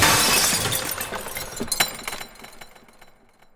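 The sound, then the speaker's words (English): A loud crash of glass shattering, bursting at once and then trailing off into a scatter of tinkling shards and clinks that fade over a few seconds. A thrown billiard ball smashing a hole in the mirror behind a bar, with no voices. “I said, thank God, and picked it up, threw it, and it made a hole in the mirror.”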